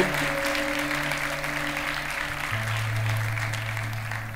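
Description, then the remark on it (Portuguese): A large audience applauds the Lord steadily for several seconds, a dense, even patter of clapping, with low sustained keyboard tones droning underneath. “você pode aplaudir o Senhor pelos 40 dias com um propósito”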